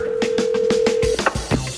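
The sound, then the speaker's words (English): A telephone line tone holds steady for about a second beneath a quick run of rhythmic clicking pulses, then cuts off, leaving a few scattered clunks and a short low buzz; agents are calling a home as they head to its front door. “I think the call was being made.”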